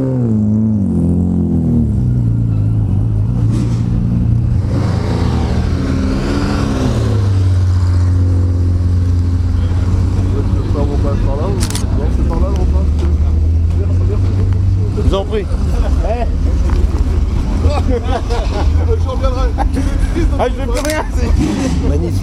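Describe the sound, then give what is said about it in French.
A 512 M racing car engine roars loudly on a circuit, its pitch climbing and dropping in revs early on before settling into a steady, sustained low drone, with voices faintly audible beneath it. “alors que vous entendez cette 512 euh, M1 magnifique.”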